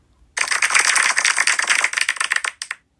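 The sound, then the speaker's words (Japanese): A short burst of applause sound effect, a small group clapping in a dense patter for about two seconds, then thinning into a few scattered final claps. No voices. “えー、拍手の音なんか入れてみようかな。”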